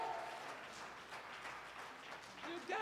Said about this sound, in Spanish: Dale aplauso al Señor si lo crees. Give God a hand of praise if you believe it.